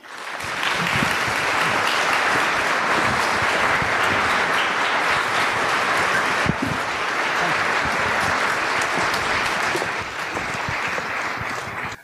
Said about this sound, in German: Und jetzt einen dicken Applaus für Professor Harald Lesch.